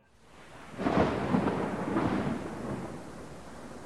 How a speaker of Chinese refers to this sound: 有一次上着上着课就下起了暴雨